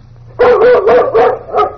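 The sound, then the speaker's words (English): A dog named Bullet barks on command five times in quick, steady succession, loud, with no voices alongside. “Uh, bark, Bullet.”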